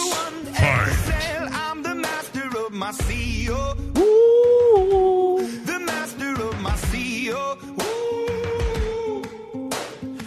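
A loud pop rock song plays throughout, with a sung vocal line over punchy drum hits and a deep bass, steady and full from start to finish.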